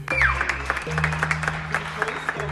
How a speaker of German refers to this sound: Wo wir überall von den Balkon geklatscht haben. Für das Pflegepersonal, das pflegt und Leben gerettet hat in Zeiten von Corona. In Italien hat man geklatscht, Spanien hat man geklatscht, aber auch bei uns in der Schweiz.